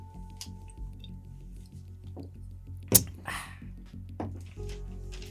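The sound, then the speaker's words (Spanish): Someone takes a quick sip, with a sharp gulp or clink about midway, then lets out a breathy, satisfied 'ah', over a steady low background hum. “Yo también hago eso cuando tomo, aunque sea agua.”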